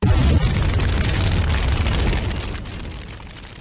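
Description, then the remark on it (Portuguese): A massive MOAB bomb blast erupts at full volume, with a deep, heavy boom followed by several seconds of rolling, crackling rumble that slowly fades. No voices are heard. “Solta a Moab, fogo do muturo.”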